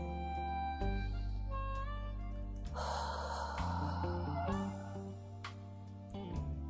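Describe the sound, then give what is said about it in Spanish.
A deep, breathy inhalation followed by a gentler, softer exhalation through the mouth as a breathing exercise, heard over sustained, droning background music with no talking. “Recuerda, es una inhalación profunda y una exhalación suave, generando un sonido parecido al el aire que sale por tu boca ha de salir caliente no es como soplar, es expresar”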